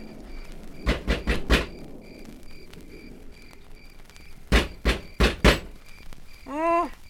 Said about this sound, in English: Hmm, doesn't seem to be a bell. Well, uh, use your knuckles. Knock.